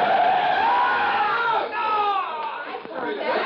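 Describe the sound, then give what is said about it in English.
A car brakes hard while pulling in to park at a corner by a drugstore, its tires letting out a long, loud, wavering screech for several seconds as it strikes a young man who stepped off a bus, with a hint of excited voices mixed in near the end. “I watched the bus pull away from the corner, then drove in to park, not seeing the young fellow who just stepped off the bus until it was too late.”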